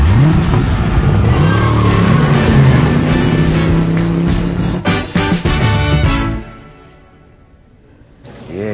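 A car engine in a TV commercial revs hard and accelerates, its pitch climbing in loud, rising sweeps for several seconds before cutting off abruptly into near quiet, followed by a brief burst of noise at the end.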